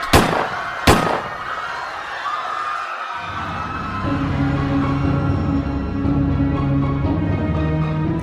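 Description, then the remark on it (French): Two sharp, loud gunshots crack in quick succession at the very start, fired after a scuffle at a crowded, festive dance venue, followed by a sustained wash of panicked crowd noise and raised voices. “Des insultes fusent, une bousculade interrompt les danseurs et soudain, des coups de feu créent la panique.”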